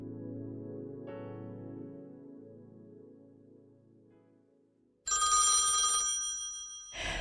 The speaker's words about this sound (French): à un moment donné, le téléphone sonne en pleine nuit ou à peu près, parce que Barbara ne dormait à peu près jamais.